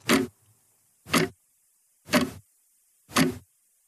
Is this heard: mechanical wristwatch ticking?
yes